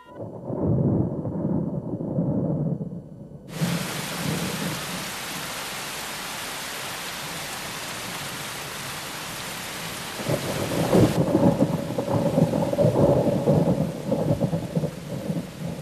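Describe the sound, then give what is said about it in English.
Deep rolling thunder rumbles, then a sudden, steady hiss of heavy rain pours down, and another long, loud thunder roll builds beneath the downpour near the end. No one speaks. “Rain fell from the clouds.”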